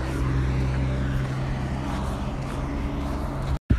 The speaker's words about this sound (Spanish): He cortado grabación porque había demasiado tráfico para estas horas de la mañana de un sábado.